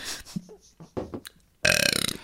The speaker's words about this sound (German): Ich muss schon wieder aufstoßen vor lauter